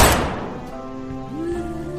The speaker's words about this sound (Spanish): Se escucharon dos tiros. Y estos me enviaron al suelo para acostarme con mi amigo.